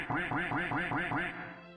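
duck quacking sound effect

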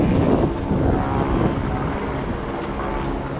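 helicopter flying overhead

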